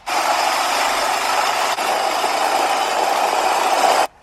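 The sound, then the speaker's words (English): An ATV engine runs loud and steady while being ridden along ATV trails in the woods, a constant rough mechanical roar with a brief dip partway through, then cuts off abruptly at the end. No one speaks. “It gave me a spot in the middle of the woods that's kind of close to my house, but it looks like it's along ATV trails, so we're on the ATV and let's go see where it takes us.”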